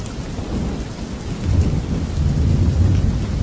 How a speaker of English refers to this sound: Gone are the days I can listen to the rain falling down outside my window pane and not think it is some enemy trying to wash us away.